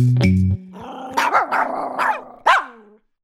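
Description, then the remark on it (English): A small dog growls low and then lets out a string of sharp, high-pitched barks, about five yaps in quick succession, fairly loud, with no talking. “Small breeds, uh, Chihuahuas. They're mean. They're cute, but they're mean.”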